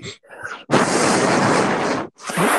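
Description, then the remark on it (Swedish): Loud, blustery breaths blasted straight into a microphone, a long roaring gust of about a second and a half with a shorter one after, preceded by a few brief voice sounds. “Vad gör du? Jag andas från lilla typ.”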